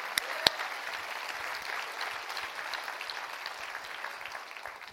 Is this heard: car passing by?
no